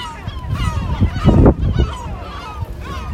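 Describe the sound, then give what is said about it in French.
Seagulls in a seaside town call repeatedly in overlapping, nasal squawks and cries, a busy chorus of several birds with a louder burst in the middle, over a low rumbling background. “Je vous laisse avec les goélands.”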